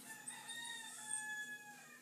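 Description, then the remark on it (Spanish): A rooster crows in one sustained, strained call lasting about two seconds, with bright harmonic overtones and no talking over it. “Y ahí está el gallo.”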